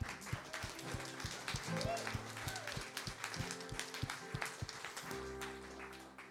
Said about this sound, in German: Können wir jetzt mal Applaus geben?